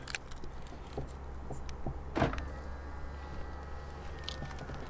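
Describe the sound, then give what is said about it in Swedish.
Someone climbs into the passenger side of a car: faint shuffling and small clicks over a low steady rumble, then a single solid thud midway like a door shutting, followed by quiet interior hum. “jag hoppar in på passagerarsidan.”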